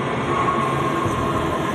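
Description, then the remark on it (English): A subway train on a morning commute, partly on the Red Line, rolls along the rails with a steady, loud rumbling roar and a faint high whine running through it, heard from inside the car with no voices. “We ride along with her on her morning commute. Part of it is on the red line.”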